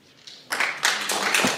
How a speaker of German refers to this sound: Oh, Applaus.